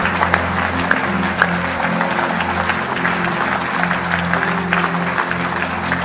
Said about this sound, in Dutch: Zullen Jezus gewoon een heel groot applaus geven?